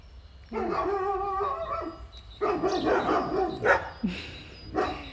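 Neighbours' dogs bark in a loose series of sharp yaps, starting with a drawn-out whiny, howling bark and followed by several shorter bursts.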